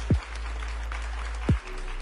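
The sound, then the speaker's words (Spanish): Steady crowd applause, presented as the inhabitants of the Mictlán mound in the ocean depths applauding, with a dense, crackling texture, broken by two deep, sweeping thuds that fall in pitch, one early and one midway through. “Mientras tanto, en las profundidades del océano, los habitantes del montículo Mictlán aplaudían el acontecimiento.”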